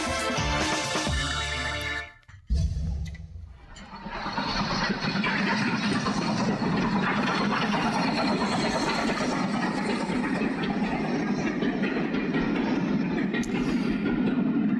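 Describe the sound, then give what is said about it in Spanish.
A train rolls along the rails with a steady, loud, continuous rumble and hiss that holds for over ten seconds, after a brief tonal burst and a short pause at the start. “Arrancamos nuestra historia sonora de hoy. Eh, ya les decía, es sobre héroes, eh, pero también es sobre trenes.”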